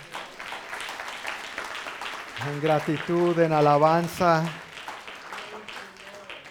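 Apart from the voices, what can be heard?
audience applauding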